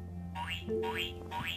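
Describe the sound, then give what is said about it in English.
Three springy cartoon boings of a frog jumping in a gym, in a steady rhythm, each a rising, wobbling tone that bounces upward in pitch, fairly loud over a low, steady background hum with no talking. “Keep jumping, says the teacher. The frog keeps jumping too.”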